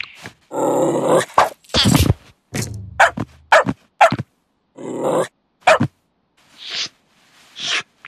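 A dog barks and growls in a loud, uneven series of bursts, with a few low, rumbling growls mixed between the sharper barks and no one talking.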